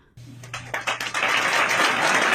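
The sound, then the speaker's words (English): Audience applause starts with a few scattered claps that quickly build into a steady, loud wash of clapping from many hands, with a low hum underneath. “ah applause line”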